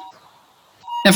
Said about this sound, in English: That's the doorbell.